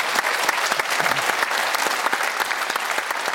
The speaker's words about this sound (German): Und ich finde, das war der Applaus wert. Auf jeden Fall. Sehr gut.